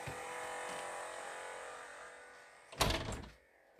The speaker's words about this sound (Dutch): Ik ga even de deur eh, dicht doen.